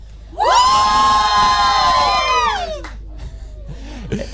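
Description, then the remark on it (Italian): A group of voices, the Anime Vocal Contest finalists and Cartoon Music Contest winners, lets out a loud, sustained cheering shout for about two seconds, then trails off into scattered murmurs and brief noises. “Un grido di commento.”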